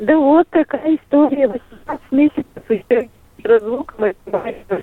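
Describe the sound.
A caller from Kirov talks over a mobile phone line with a thin, narrow-band sound, and the voice cuts in and out with brief dropouts and gaps between choppy bursts of speech as the mobile connection keeps dropping.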